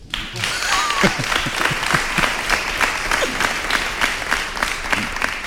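Steady audience applause fills the whole stretch, a dense wash of many hands clapping at a brisk, even rate, fairly loud throughout with faint voices underneath.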